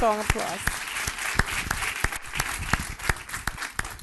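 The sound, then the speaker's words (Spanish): An audience applauds in a dense, steady wash of clapping, with sharper, louder claps popping out at fairly regular intervals; a voice briefly sounds over the start. “Dele ese fuerte aplauso. Déselo fuerte, fuerte, fuerte.”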